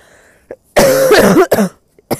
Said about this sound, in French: Désolée, je tousse encore.